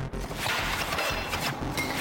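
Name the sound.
gunshots fired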